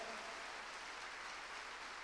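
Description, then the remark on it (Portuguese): An audience applauds the Lord together, a dense, steady wash of many hands clapping at once, sustained without a break and heard alone with no voices over it. “Quantos podem aplaudir o Senhor aqui e dizer glória a Deus por isso?”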